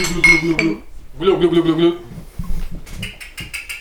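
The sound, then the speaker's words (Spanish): Voices call out twice, then a quick run of bright glass clinks rings out, several sharp taps in rapid succession like glasses meeting in a toast. “Oye, un saludo por Alien Store entonces, Salud por Alien Store, nuestro gran auspiciador. Salud, salud, salud.”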